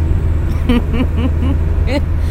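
A bus driving fast through traffic, its engine rumbling with a steady, heavy low drone, while several brief, muffled voice-like sounds rise and fall over the noise.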